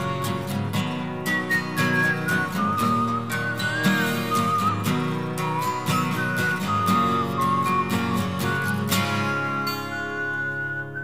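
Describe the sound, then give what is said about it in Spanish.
A clear whistled melody floats over steadily strummed acoustic guitar in an unplugged-style rock song with only guitar and whistling, the tune gliding between sustained notes throughout, fairly loud with no voices. “esta canción tenía silbidos”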